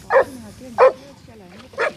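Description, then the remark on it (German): An Alpine Dachsbracke hunting dog, used to flush out nutria along streams and waters, barks three times, loud, with evenly spaced sharp barks and a low murmuring voice running quietly beneath them. “Das ist der Hund”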